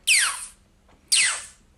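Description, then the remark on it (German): Two sharp vocal bursts, each starting bright and sweeping downward like a laser zap, made by a beatboxer's voice imitating a laser gun: a self-invented sound called a shotgun snare. They come about a second apart, fairly loud. “Ich nenne den Shotgun Snare, obwohl es gar keine Snare ist, eigentlich lol.”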